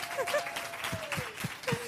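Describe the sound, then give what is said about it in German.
A festival audience applauds in a dense, steady wash of clapping, with a few sharper claps poking through and faint whistle-like tones rising above the crowd noise. “Also mal einen Applaus für den einzigen ja.”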